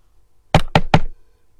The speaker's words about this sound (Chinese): 小狗上前敲了敲门：“ 谁呀？”